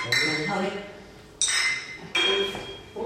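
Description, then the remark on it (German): Glasses clink together in a toast, three bright, ringing strikes spaced about a second apart, each tone lingering and fading. The sound is clear, with faint voices in the background. “Dann trinken wir alle mal.”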